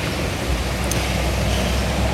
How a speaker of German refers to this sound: Das ist recht ein grosses Auto.